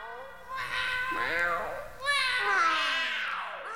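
Two drawn-out meows from a cat, fairly loud, each rising and falling in pitch, the second following right after the first with no other sounds around them.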